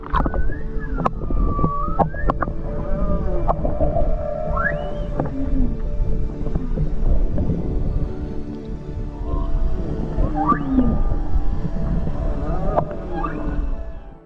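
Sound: whale songs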